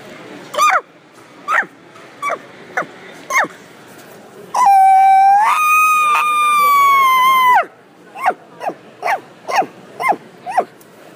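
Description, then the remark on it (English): An elk call: a steady run of short, sharp chirps, then a long, high, whistling bugle that rises and holds for a few seconds before breaking off. Another series of quick chirps follows. “we're going to take it out west and get to the elks, the big boys, you know, the ones that everybody loves to challenge with hunting.”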